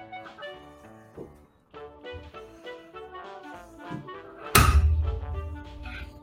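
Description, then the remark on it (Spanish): A tossed coin spins for a while before landing on a table with a single loud thunk near the end, after several seconds of quieter tonal background sound. “Eh, que no quería caerse, la moneda tuvo como un rato ahí dándole, no quería caer.”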